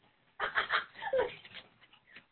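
A dog whimpers in a quick run of high, whiny cries lasting about a second, then trails off into a few fainter whines.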